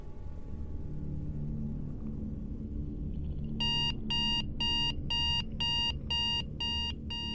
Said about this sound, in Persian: مثل هر روز با صدای آلارم موبایل از خواب بیدار شدم